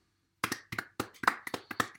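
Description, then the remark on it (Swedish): A few scattered hand claps after a midfielder of the year award is announced, maybe nine or ten sharp dry slaps at an uneven pace, thin and unenthusiastic, with no voices over them. “Det är jävligt torra applåder de får här.”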